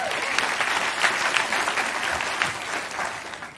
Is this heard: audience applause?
yes